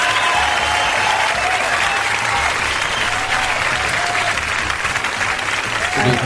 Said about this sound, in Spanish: te mereces un aplauso.